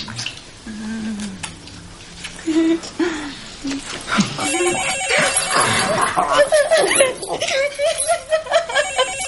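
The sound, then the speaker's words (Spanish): A telephone bell rings insistently and fairly loudly, its bright trilling tones running through the second half while people talk and laugh. “El teléfono suena.”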